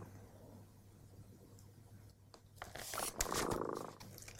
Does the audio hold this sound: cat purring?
yes